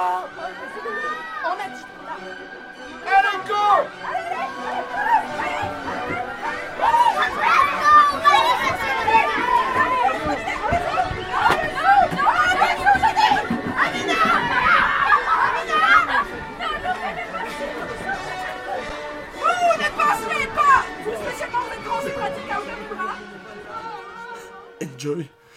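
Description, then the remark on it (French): A crowd of excited children hunting for eggs outdoors, chattering and shouting over one another, a constant lively din with occasional high squeals and running about, lasting throughout. “Voilà ce que ça donne le bruit des enfants qui chassent des œufs.”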